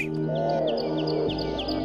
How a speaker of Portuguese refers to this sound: O canto de diferentes e cativantes melodias. Encanta quem passa e encanta quem fica. As cotovias sempre foram muito procuradas pelos que gostam de observar e escutar as vocalizações das aves.